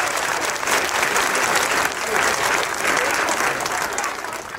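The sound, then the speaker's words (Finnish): A large crowd at the harbour square in Lappeenranta, Finland, claps and cheers steadily outdoors at the announcement of a new player's contract. The applause is a dense wash with scattered shouts, sustained at full strength before easing slightly near the end. “siinä Lappeenrannan satamattorin yleisö otti David McIntyren julkaisun raikuvin uploadein”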